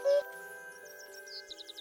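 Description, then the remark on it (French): A common cuckoo calls in a forest, one loud, low hooting note at the start, then smaller birds chirp in a quick, rhythmic series of high tweets over a steady faint background tone. “Tiens, tu as entendu L'as-tu reconnu Mais oui, c'est un coucou.”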